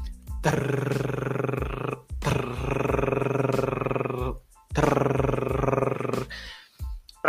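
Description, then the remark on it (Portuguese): A voice makes three long rolled-tongue trills, a vibration of the tongue, each a loud, rough, buzzing "trrr" lasting over a second, separated by brief pauses, with a short breathy sound at the end, done as a vocal exercise. “eu estou fazendo um som, emitindo um som de TR, TR. Trrr, percebe que é uma vibração da minha língua, né?”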